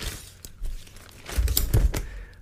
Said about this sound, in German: Ah, ein Schirm, ein Schirm. Ja, Westcott-Schirme.